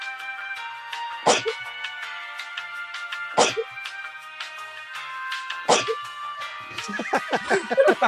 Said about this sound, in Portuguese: E vai logo, senão eu vou espirrar de novo pela primeira vez aqui no Press Start.